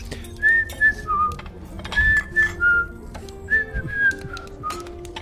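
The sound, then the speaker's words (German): Someone casually whistles a short tune to themselves while holding a door open behind them, in clear, sliding notes, with a few pauses between phrases over a soft background hum and faint clatter. “Und dann äh, mache ich beschämt. die Tür auf äh, hinter mir, also dass die rausgehen können, ganz entspannt und pfeife vor mich hin währenddessen.”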